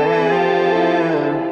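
A loud, drawn-out burp-like sound with a buzzy, effect-laden tone, holding a steady low pitch for about a second and a half with no one talking, part of the intro of a new music track.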